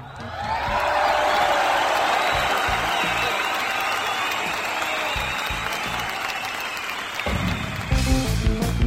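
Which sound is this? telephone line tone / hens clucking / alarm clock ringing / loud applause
loud applause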